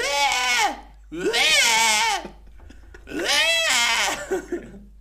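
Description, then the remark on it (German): A voice imitates the screaming goats from the new Thor film with three loud, strained, wavering bleats, each about a second long, pitched high and nasal with a shaky vibrato, separated by short pauses. “So wie die äh, Ziegen im neuen Torfilm.”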